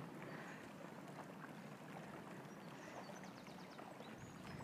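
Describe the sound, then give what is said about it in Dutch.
Water laps and splashes steadily by a forest on a windy day, a constant wash of wind and small ripples with faint bird chirps high above; no one speaks. “Aan het water en Misschien kan je het water wel horen.”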